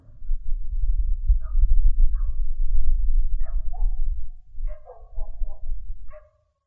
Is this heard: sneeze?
no